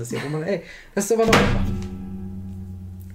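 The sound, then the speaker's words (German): A phone thuds heavily onto a hard surface, one loud dull knock with a ringing decay, cutting into a man's speech, which then resumes over the fading resonance. “das war mein Handy.”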